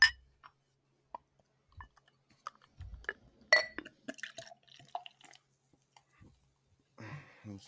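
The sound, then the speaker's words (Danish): A bottle of smoky Scotch whisky is opened with small clicks of its cap and a glassy clink, then whisky is poured briefly near the end, quiet with no talking. “Øh, jamen, skal vi åbne den? Lad os det. Der er sådan en kæk øh, kapsel.”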